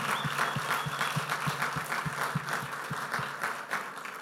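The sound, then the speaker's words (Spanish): A church audience applauds together at a morning service, steady rhythmic clapping with a regular beat running throughout, loud and sustained with no voices over it. “Así es que sí le voy a dar un aplauso a ustedes en esta mañana.”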